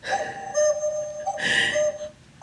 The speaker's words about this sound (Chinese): 我的布谷鸟又叫了